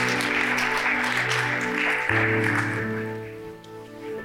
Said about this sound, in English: You can clap after these if you want.